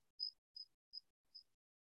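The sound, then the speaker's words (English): A single cricket chirps four times in a steady, evenly spaced rhythm, each high, thin pulse fading slightly softer than the last, heard alone against near silence. “We hear the sound of a cricket.”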